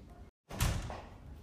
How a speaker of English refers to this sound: There was a knock at the door. He opened the door, but there was nobody there.